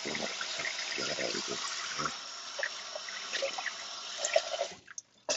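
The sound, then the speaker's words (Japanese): Tap water runs in a steady, hissing stream while dishes are washed after dinner, with scattered soft clinks and splashes, and the flow briefly drops out near the end before starting again. “晩ご飯を食べた後の食器洗いで”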